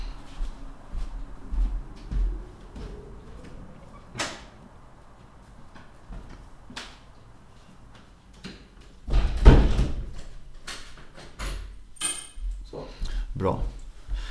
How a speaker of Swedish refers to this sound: Fan, nu eh, ska vi stänga altanen bara eller? Ja, gör det. Så att eh, man inte hör um, ehm, E20 mot Borås konstant.